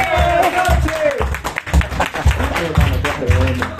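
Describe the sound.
A crowd claps steadily and loudly throughout to welcome a guest, a dense burst of applause with voices calling out over it near the start.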